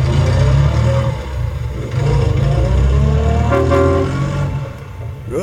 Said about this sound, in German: Also, ich hätte es schon beim Autostarten, aber spätestens mit der Hupe war klar, was es ist, ne?